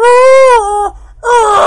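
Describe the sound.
A voice imitates a big black dog crying rather than barking at a family's front gate in a yard, two long, wavering howls, the first sustained and slightly falling, then a brief pause before a second rising, whimpering wail.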